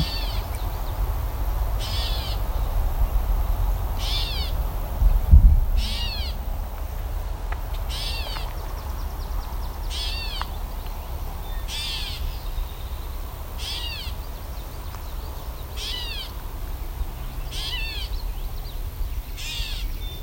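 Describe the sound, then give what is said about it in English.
A gray catbird gives a series of about ten nasal, cat-like mewing calls, repeated steadily every couple of seconds over a low outdoor rumble, with one brief thump partway through. “gray catbird being very uh, talkative. It's meowing.”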